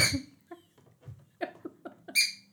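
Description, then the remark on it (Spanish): A dog's squeaky toy, the dog's only noise-making toy, squeaks over and over in short, uneven bursts, with longer shrill squeals at the start and end and no talking. “Mira mi perra con el único chiche que tiene que hacer ruido.”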